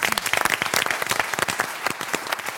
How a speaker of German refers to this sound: Nochmal Applaus.